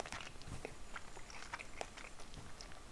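Chewing and biting on food while eating lunch, with repeated crunchy, moist mouth sounds in an irregular rhythm, fairly quiet and steady with no talking.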